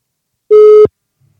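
A single short telephone line tone, a steady electronic beep lasting about a third of a second, loud and clear, heard while placing a call as an experiment, followed by silence with no voices.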